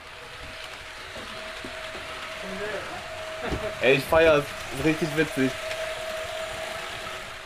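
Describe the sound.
A model of a colorful S-Bahn train with X-Wagen coaches and a graffiti piece on it rolls along the track, its small motor whirring steadily, a constant mechanical hum with a faint whine running throughout, while a person briefly talks and laughs over it.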